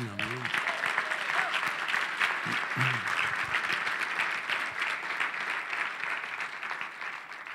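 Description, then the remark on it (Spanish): An audience breaks into sustained applause, a dense wash of clapping that holds steady throughout, with a few brief voices calling out near the start. “Ese merece un aplauso, ¿no?”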